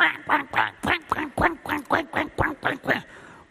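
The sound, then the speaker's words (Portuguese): A voice imitates Donald Duck grumbling: about a dozen rapid, raspy quacking syllables in a steady stuttering rhythm, fairly loud, with no other speech. “Mas nós, humanamente, estamos resmungando. Parecemos o pato Donald.”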